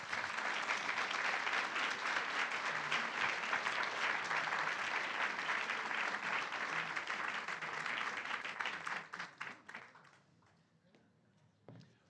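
Loud, dense applause from a large audience welcoming a guest speaker for an evening talk on Ho'oponopono, sustained for several seconds before thinning into scattered claps and fading out near the end.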